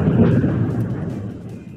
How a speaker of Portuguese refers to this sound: É, a chuva. Aí e tá trovões, né?